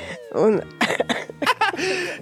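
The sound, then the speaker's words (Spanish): A series of raspy coughs in quick bursts, some with a rough voiced edge, loud, with no talking. “Conversación perfecta para los que andamos medio agripaditos, como con tos.”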